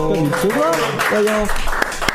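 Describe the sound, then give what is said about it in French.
Steady applause from an audience welcoming a member of the public who arrives on stage, a dense wash of claps lasting the whole moment, with a voice talking loudly over it. “On l'applaudit, on l'accueille.”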